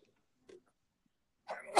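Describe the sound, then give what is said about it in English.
A brief soft intake of breath, then a sudden loud sneeze bursting out at the end after a moment of near silence. “Bless you.”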